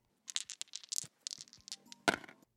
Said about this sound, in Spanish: Vamos a lanzar los dados y cayeron en